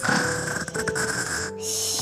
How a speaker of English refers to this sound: Oh, what an angel. That game must have really worn him out. Wow, for such a little mouse, he sure does have a loud snore.